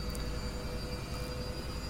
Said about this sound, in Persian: این صدایی که میشنوید دور آخر ماشین لباسشویی که من یه تیکش رو با اون سرویس هوش مصنوعی داشتم ضبط میکردم و الان سویچ کردم روی میکروفون خودم تا این صدایی که میشنوید رو این صدایی که میشنوم رو در واقع شما هم بشنوید